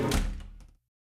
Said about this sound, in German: Und dann schließt sie die Tür.